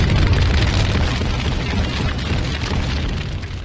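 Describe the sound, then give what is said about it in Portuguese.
A loud, sustained bomb explosion roars for several seconds, a dense rumbling blast with heavy low-end boom and crackling debris, fading only slightly toward the end with no voices. “Solta Moab, fogo no Muturo, Moab.”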